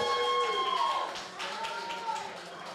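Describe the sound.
A live show audience applauds the bartender steadily for a few seconds, a dense wash of clapping mixed with cheering voices and a high whoop or whistle near the start.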